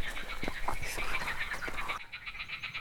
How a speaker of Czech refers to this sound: Ale z druhé strany je zajímavý, že jak dlouho bychom museli tady po tom kraji chodit, abychom našli takovéhle místo, kde slyšíš takovýhle koncert žab. To jo. Tak jdem blíž k těm žabám.